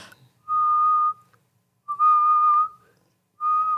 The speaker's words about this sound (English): I was trying to learn to whistle when I was younger um, at grandma's house and I could kind of only do one note, but I would raise and lower my head. Like I was making different noises. So I'd go,